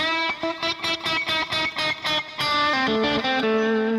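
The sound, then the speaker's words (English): Distorted electric guitar plays a quick run of about eight repeated, choppy notes, then sustained string bends that go up and down in pitch, demonstrating bending technique, loud and buzzy with no talking. “There's so many cool things you can do in context of bending, okay?”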